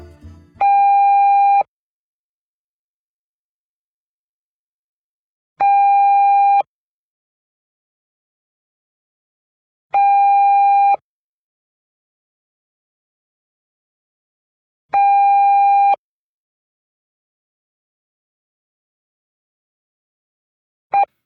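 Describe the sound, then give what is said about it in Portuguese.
A radio time signal on a Portuguese station marking seven o'clock in the morning, official mainland time: four long, steady electronic tones evenly spaced about five seconds apart, clear and fairly loud with silence between, and a fifth tone just starting as it ends. No voices. “Afinal, tudo começa com o sinal do horário e esse sinal, repetido cinco vezes, cinco traços de som marcados pelo relógio preto com pontos vermelhos, o sinal horário, o sinal do tempo.”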